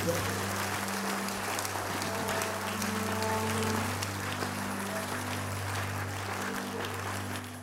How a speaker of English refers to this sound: Give the Lord a clap, friend.